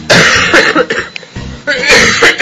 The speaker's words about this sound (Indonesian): oh, batuk lagi